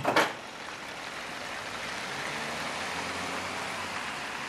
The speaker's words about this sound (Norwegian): Og der kjørte bilen med kunsten bort fra tollageret.